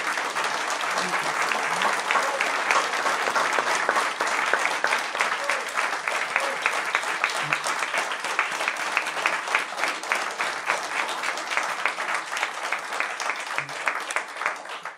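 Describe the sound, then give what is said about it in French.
Sustained applause from an audience fills the whole stretch, a dense, steady wash of many hands clapping at once, loud, with no break or fade. “Merci à euh, tout le monde de me soutenir euh, avec avec l'applaudissement.”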